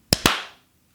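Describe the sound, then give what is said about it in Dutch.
Two sharp hand claps in quick succession, loud and crisp, followed by a short fading ring before silence. No one speaks. “Nog één keertje klappen. Ik wil nog een keertje klappen.”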